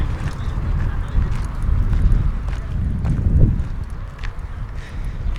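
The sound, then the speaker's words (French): Footsteps crunch along a small-pebble gravel path between large green lawns in Marseille at an even walking pace, partly buried under a heavy, steady wind rumble outdoors. “Je marche sur une allée de petits cailloux entre de grands espaces verts, de pelouse.”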